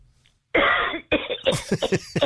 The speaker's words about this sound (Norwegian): Litt forkjøla i dag? Ja, ja. det er jeg. det går over. Få høre på hosten. Kan du hoste, hoste litt ut?